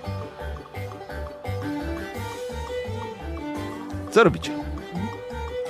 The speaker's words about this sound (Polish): Coś za głośno się zrobiło muzyka.